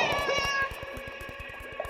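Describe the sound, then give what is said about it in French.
A cat with a crown in its mouth meows loudly and insistently, its drawn-out, wavering cries continuous over a rapid patter of soft thumps as it runs off, with no one speaking. “Attila le chat a filé sans demander son reste.”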